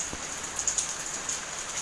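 Steady rain falls with a dense, hissing patter, a few slightly louder drops standing out against the constant wash. No voices, just the continuous sound of rainfall at moderate volume.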